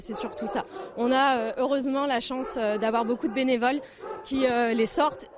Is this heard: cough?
no